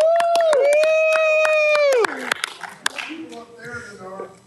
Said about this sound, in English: Come on, everyone! Come big round of applause